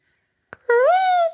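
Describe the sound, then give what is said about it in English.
A person imitates the call of the kolea (Pacific golden plover): a short click, then a single loud, sustained vocal note that slides upward and holds, with no talking. “Do you know how to um mimic kolea? Oh, it's like a sharp like.”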